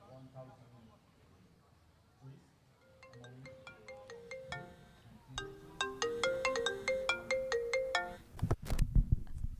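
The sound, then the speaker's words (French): A telephone ringtone plays a bright, repeating electronic melody that grows louder over several seconds, following some faint talking at the start and ending in a brief burst of noise. “on se retrouve juste après sur Campus Grenoble 90.8 après avoir écouté le coup de fil”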